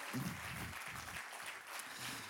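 Steady clapping from a crowd for a person on stage, a dense continuous patter of many hands, moderately loud, with faint voices mixed in underneath.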